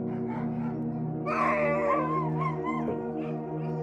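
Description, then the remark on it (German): A chorus of six husky sled dogs, harnessed to a dog sled for a trip into a national park, howls and yips excitedly outdoors, with overlapping rising and wavering cries over a steady low hum, growing louder in the middle before easing slightly. “Draußen wartet tatsächlich ein Hundeschlitten auf uns.”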